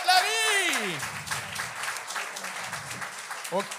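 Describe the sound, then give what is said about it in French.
Dense, steady applause from an audience runs through the whole stretch, opening with a loud rising-and-falling cheer over the clapping and ending with another short shout. “On continue ces beaux applaudissements.”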